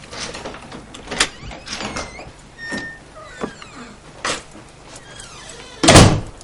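A man arriving home handles the door, with scattered clicks and creaks of the latch and hinges, before it swings shut with a solid, loud thud near the end. No one speaks.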